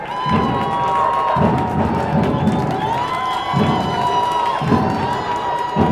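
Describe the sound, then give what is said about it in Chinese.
A lively crowd at a circus cheers and shouts continuously while a deep drum thumps in a steady beat, about one hit per second, under the loud, bright din of voices. “上学的路上，才走到一半，忽然听到了打鼓的声音，还有欢呼声，好热闹哦！”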